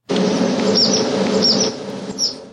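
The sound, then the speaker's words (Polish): Outdoor ambience on a horse ranch: a steady droning buzz of insects fills the background while a bird chirps several short, high tweets in quick pairs. No one speaks. “wybrałem się na pewne rancho, żeby spotkać się z Igo i z jej koniem Figusiem”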